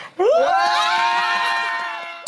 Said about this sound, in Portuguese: Vem, vem, vem. Vai gritar assim. Aí ele tá assim, aqui no cantinho. Vem no cantinho. Vem, vem, vem, que ele quer gritar.